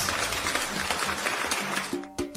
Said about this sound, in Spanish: un aplauso. ¡Bravo!